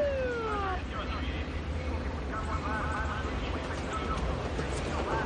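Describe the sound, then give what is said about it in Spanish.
Police sirens wail and sweep in pitch over a dense wash of street and traffic noise, in a street filled with police patrol cars, with a descending siren tone at the start and more wavering siren calls further on. “Mark observa la calle que está llena de coches patrulla.”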